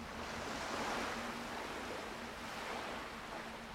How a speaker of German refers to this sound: Sie schaut den Wellen zu, hört, wie sie an den Strand schlagen.